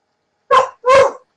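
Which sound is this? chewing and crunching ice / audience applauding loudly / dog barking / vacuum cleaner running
dog barking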